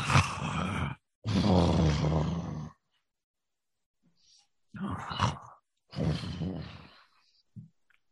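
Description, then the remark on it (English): A voice imitates the very loud snoring of a sleeping dragon that has curled up and rolled over: four long, rasping, growly breaths in two pairs with a pause between, forceful, ending in a short low grunt. “And just rolls over and clocks out snoring very loud”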